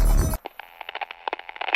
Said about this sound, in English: The speaker squelches a burst of white noise, followed by a single sentence uttered by an unknown voice.